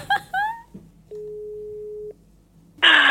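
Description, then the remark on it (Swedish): A single steady, mid-pitched ringing tone of an outgoing phone call to Kungliga Operan sounds for about one second, preceded by brief voice sounds and followed by a sudden loud noisy burst. “Alltså, jag skrattar redan innan du ens har börjat ringa.”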